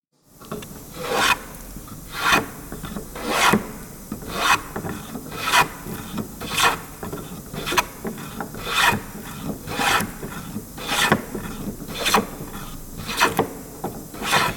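A wood plane shaving wood in steady repeated strokes, about thirteen rasping, hissy passes at an even rhythm of roughly one per second, moderately loud with no voices.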